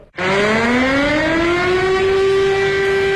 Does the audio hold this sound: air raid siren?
yes